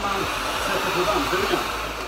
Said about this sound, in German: Weiteres Thema bei uns ist Staubsaugen. Das ist nämlich gerade gar keine gute Idee in Schweden.